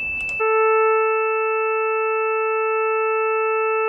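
A steady synthesized electronic tone built by adding the sixth harmonic to the lower harmonics sounds loud and unbroken, holding a buzzy, organ-like timbre for the full length after a brief burst of noise at the start.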